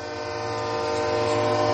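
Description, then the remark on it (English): A loud, sustained train horn sound effect blares steadily, its layered tones holding without a break for nearly two seconds, with no voices present. “That's number three. Three, three trains.”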